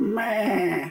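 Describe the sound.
A mobile phone ringtone: a single wavering, bleating cry lasting about a second, a human voice mimicking a lamb's bleat in a nasal, quavering tone, clear with no other talk.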